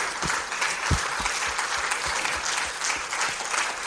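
An audience breaks into steady applause, a dense wash of many hands clapping at a fairly even loudness throughout, with a few sharper individual claps and thumps standing out.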